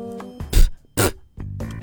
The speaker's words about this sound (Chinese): 他有一些让人特别恶心的臭毛病，比如打嗝、放屁、吐吐沫。